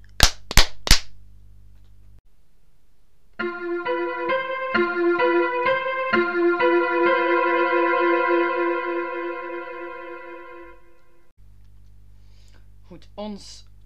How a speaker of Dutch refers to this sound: Oh, je moet klappen. En zoals altijd gaan we eerst klappen. 3, 2, 1.